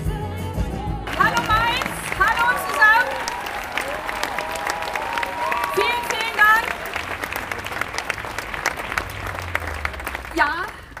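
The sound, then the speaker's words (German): A large audience at a Green party campaign event claps steadily and warmly to welcome Annalena Baerbock, a dense wash of applause lasting several seconds, with scattered cheers and whoops rising from the crowd. “Es war ein Heimspiel für Annalena Baerbock mit einem warmen Empfang, als es losging.”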